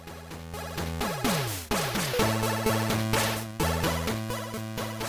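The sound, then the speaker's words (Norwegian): Busy, loud chiptune-style title theme music from a 1980s Game Boy video game, with buzzy synth tones, a repeating bass line and sharp percussive hits, playing continuously with no voices. “Robocop title theme, eh, som er komponert av Jonathan Dunn, hørte du det der.”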